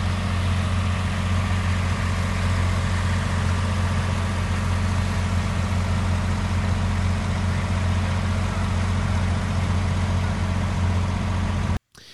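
A steady, loud rumble of idling car engines from lines of cars waiting to go into the Tzion (grave site) of the Ribnitzer Rebbe on his yahrtzeit drones on with a low throbbing hum for about twelve seconds, then cuts off abruptly; no one speaks.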